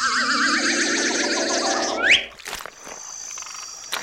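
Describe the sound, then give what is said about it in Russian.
A dense chorus of croaking frogs in a swamp trills loudly for about two seconds, then gives way to a quick rising whoosh, a soft thud and a lingering high ringing tone. “Хорошо, что в болото не шлепнулись.”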